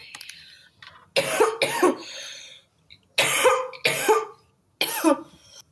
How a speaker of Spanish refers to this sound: La … sobrevivió el ataque de tos